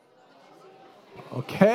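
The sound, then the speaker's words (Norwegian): A low murmur of many audience members talking among themselves, discussing with the people beside them what they think of when they hear the word speaking in tongues, with one voice rising above the babble at the very end. “Det er godt å høre at det er engasjert.”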